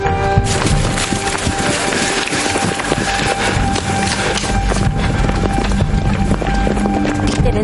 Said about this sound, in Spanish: El niño sale corriendo y los soldados le persiguen.